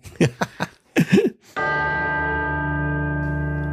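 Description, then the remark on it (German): A brief burst of voice gives way to a single loud strike of a large bell, its deep, rich tone ringing on and sustaining steadily to the end. “dieses Jahr mal so eine richtige Glocke nehmen. So … mäßig.”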